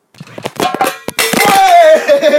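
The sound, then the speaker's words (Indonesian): A stack of books collapses after a tumbler wobbles slightly, in a quick flurry of clattering, slapping impacts, then a loud, drawn-out wailing voice sinks slowly in pitch. “hancur semua.”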